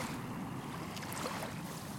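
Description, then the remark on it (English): Waves lap steadily at the shore, about two metres away, in a continuous wash of water with no clear pauses, a soft breezy hiss riding on top, and no voices. “these lapping waves are lapping ever closer.”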